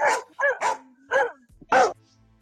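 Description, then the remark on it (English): Dogs barking right behind the speaker in a quick, uneven series of about five sharp barks, fairly loud, with brief quiet gaps between them and no talking. “I mean, my goodness, thank you for the cue in of the dogs right behind me.”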